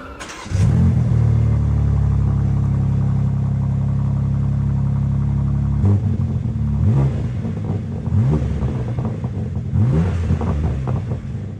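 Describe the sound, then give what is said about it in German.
A BMW M2 sports car engine fires up with a sharp bark, settles into a deep rumbling idle, then revs repeatedly in throaty bursts, loud with no voices. “Und wie dieses Auto klingt, das hören wir jetzt schon mal. Der Sound.”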